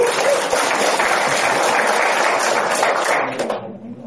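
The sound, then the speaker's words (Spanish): A crowd applauds steadily with dense, overlapping clapping that holds at an even loud level for about three and a half seconds before quickly fading out. “Un aplauso para don Carlos”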